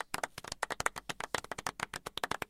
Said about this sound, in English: So let's let's give her some claps. Let's give her some claps.